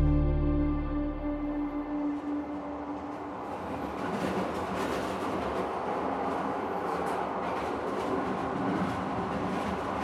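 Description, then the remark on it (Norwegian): A train with cattle wagons rolls into the station in Trondheim in the evening with a low rumble and steady tonal hum, then the wagons rattle and clatter continuously and loudly, with no voices. “Kvelden etter skramler toget med kuvognene inn på stasjonen i Trondheim.”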